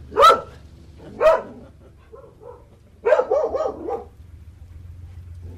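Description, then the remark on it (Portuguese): A dog barks twice, each bark sharp and separated by about a second, then gives a quick run of several barks, over a low steady background hum outdoors, as it passes along a narrow, worn stone street in a small village. “As estreitas ruas, em pedra desalinhada e gasta pelo tempo, estão em silêncio, tirando o outro cão que vai passando ágil.”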